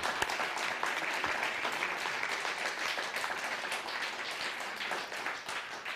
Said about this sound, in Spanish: Fuerte aplauso